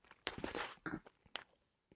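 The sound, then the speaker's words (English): Crisp crunching as someone bites into a fresh, crunchy waffle with strawberry preserves, a few sharp bursts followed by brief chewing crackles, with no talking. “Oh, that's like still crunchy.”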